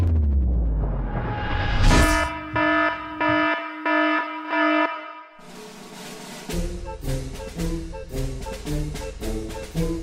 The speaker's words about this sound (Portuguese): Então, a partir da, da quinta chamadinha aí da Sirene, você tá avisado que tem spoiler e é por sua conta em risco, beleza?